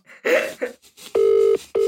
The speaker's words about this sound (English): No one answers after that many rings, do they? Dude. He hasn't got an answer phone.